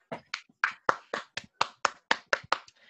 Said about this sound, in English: So yeah. Round of applause, I guess.